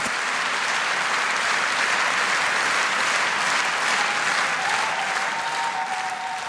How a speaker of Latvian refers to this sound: skanot aplausiem un publikai stāvot kājās, Boņuka balvu par mūža ieguldījumu saņēma ilgadējs Krāslavas kultūras darbinieks